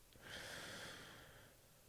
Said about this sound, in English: Ugh. Now I got the sniffles. This is great. This is great.